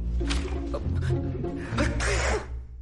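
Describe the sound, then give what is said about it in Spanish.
A nervous sneeze in a scene from the film La Última Estación (The Last Station): a few breathy intakes give way to a sharp, loud burst of air, heard over a steady low hum with no clear speech. “Estornudo cuando me pongo nervioso.”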